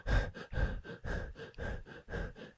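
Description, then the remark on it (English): A voice imitates a man's heavy, labored breathing as heard on a body cam during a home invasion: about six loud, rhythmic huffing breaths in quick succession, with no talking. “There's a body cam, and you hear this guy. He's breathing.”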